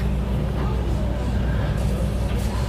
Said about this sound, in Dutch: Zo, nou, in de wasstraat.